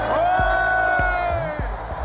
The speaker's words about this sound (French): Nous sommes le samedi 23 septembre dernier à Marseille. Il est 15h15, le Mistral souffle fort, mais il ne réussit pas à refroidir les 60 000 personnes en ébullition rassemblées au stade Vélodrome.